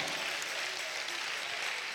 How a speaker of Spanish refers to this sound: Dale un aplauso a Dios, hermano.